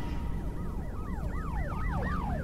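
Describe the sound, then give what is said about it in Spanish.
A police car siren wails in rapid rising-and-falling sweeps, clear, over a steady low rumble of traffic, with no voices. “Lo único que sí vieron al pasar, otra hora, fueron varias patrullas de policía.”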